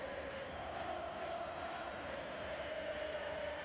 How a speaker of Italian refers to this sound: Questo è il tifoso dell'Udinese che stanno cantando in questo momento, li abbiamo visti anche inquadrati dalla, da quelli dalla, regia